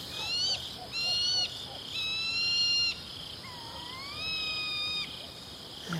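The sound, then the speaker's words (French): A tawny owl hoots its territorial call at the edge between woodland and open meadow, telling its neighbours the space is taken: a few short notes, then long, drawn-out, wavering hoots repeated over a quiet night background, with no one speaking. “La chouette hulotte, une superbe chasseuse nocturne”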